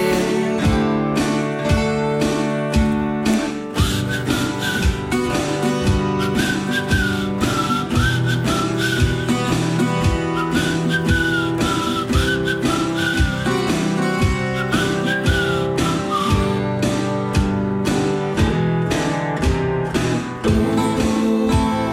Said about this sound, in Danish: Jamen, det har jeg også spekuleret på, for han gør det jo flere gange. Men det er jo sådan lige i grænselandet mellem, mellem en piften og en fløjten. En pøjten, kan man kalde det.